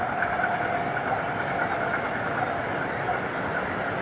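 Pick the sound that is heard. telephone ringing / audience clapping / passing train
passing train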